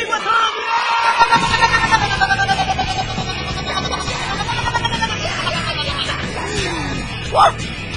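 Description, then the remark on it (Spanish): A crowd shouts together along with the radio show La Radio del Diario on 97.7, a loud, sustained roar of many voices, with rising and falling cheers throughout and a brief sharper yell near the end. “Todo mundo grita con nosotros.”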